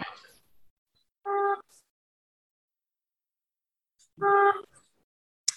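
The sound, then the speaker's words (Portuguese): Two short, loud horn honks a few seconds apart, each a steady, buzzy blast of under half a second, separated by silence, with a brief rustle at the start. “Uh, não conseguimos ouvir, só conseguimos ouvir um, uma corneta, não sei o que é que é.”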